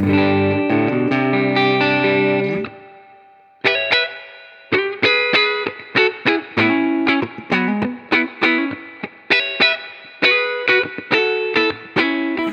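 An electric guitar on the neck pickup with its volume rolled down to seven plays alone: a sustained chord rings out, then a run of picked notes and chords follows, with a mild overdriven, effected tone.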